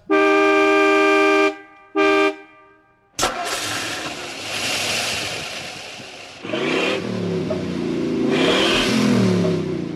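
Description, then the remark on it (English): A car horn blares twice in quick, loud blasts, then a sharp cut into an engine starting and revving up, rising and surging in waves. “Hey man, did you see that doll in that big green car?”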